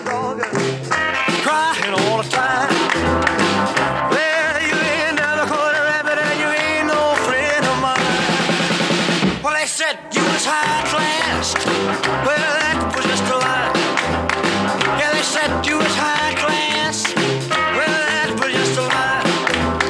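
A loud, fast 1950s rock and roll recording plays throughout, with a driving beat, twangy guitar, and a lead vocal, briefly dipping into a sustained held chord before the band kicks back in.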